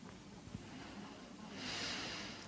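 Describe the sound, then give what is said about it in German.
During a breathing exercise, a soft normal breath is followed by a single sustained hissing 'sss' exhale that swells in the second half, quiet, with no talking. “wir atmen auf S aus und sehen, wie der Schirm sich ganz um seinen Stock zusammenlegt.”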